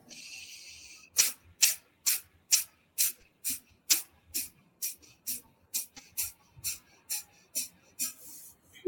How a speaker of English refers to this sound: This is an active exhale and a passive inhale. So we'll take a deep breath in. And we're breathing little bursts of air out through the nose.